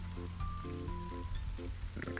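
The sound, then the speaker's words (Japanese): Light rain patters steadily in a soft, continuous hiss, fairly quiet, with faint tonal hums and background noise underneath and no voices. “スマホって雨にどれぐらい濡れていいんだろうね あんまダメなのかな”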